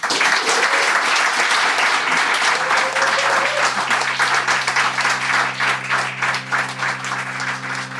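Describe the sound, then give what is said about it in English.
Sustained applause from a sizable audience thanking an interview guest, dense and steady, with a low musical tone rising underneath partway through as the clapping gradually thins. “Ladies and gentlemen, please join me in thanking Leila Madrone.”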